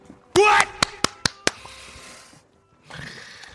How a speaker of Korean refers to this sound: 잔바리 박수. 잔바리가 잔챙이 박수. 잔잔바리. 예. 예 잔챙이.